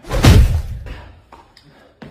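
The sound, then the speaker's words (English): A heavy, booming thump on a door, then three lighter, scattered knocks over the next couple of seconds, with no voices. “Answer the door”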